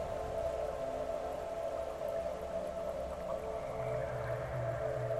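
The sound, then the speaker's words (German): A low, soft growl from a mushroom monster rumbles steadily for several seconds as the creature circles around someone, a continuous droning tone with a faint wavering quality and no speech over it. “Das Wesen wandert einmal um Maria herum mit einem für, für seine Verhältnisse sehr, sehr leichten Knurren.”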